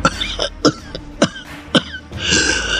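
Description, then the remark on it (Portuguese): A breathless-voiced man on the telephone coughs painfully in a series of harsh, raspy bursts, about five sharp coughs in a row, then a longer strained, wheezy exhale. Fairly loud, with no talking. “O homem da voz ofegante deu uma risada, logo em seguida tossiu dolorosamente e continuou.”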